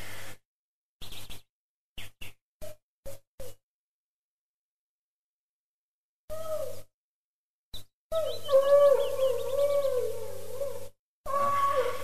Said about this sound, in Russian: это что там за вой? А? Это... Это у могилы Скурлатого младшего пес воет.